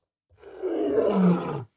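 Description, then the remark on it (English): A single lion roar sound clip, one sustained rumbling growl that swells and then cuts off after about a second and a half, loud, with no other sounds around it. “Does that read as a lion roar?”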